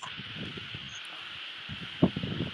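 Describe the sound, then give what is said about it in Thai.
An electric fan blows straight into a microphone, making a steady airy hiss with uneven low rumbling buffets throughout and a sharper thump of wind noise near the end. “เดี๋ยวนะครับขออนุญาตปิดปิดพัดลมก่อนครับ”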